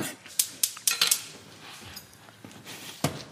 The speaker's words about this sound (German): Markus äh, klopft jetzt den Knoblauch an, ich hack jetzt hier die Zwiebel weg.